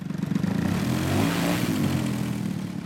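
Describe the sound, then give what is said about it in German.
A Valiant model airplane of the Icarus model club in Pfaffenhofen an der Ilm, with a 7.2 hp combustion engine and 2.75-meter wingspan, normally a glider tow plane, flies solo doing a loop and then a roll: a loud, steady buzzing drone with harmonic overtones that swells slightly in the middle, with no voices. “Eine Valiant Verbrennermotor 7,2 PS, Spannweite 2,75 Meter, normalerweise eine Schleppmaschine für Segelflugzeuge, heute aber mal im Alleinflug unterwegs.”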